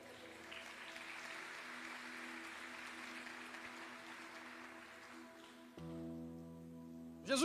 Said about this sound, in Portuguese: Você pode dar um glória a Deus por isso e aplaudir a presença dEle.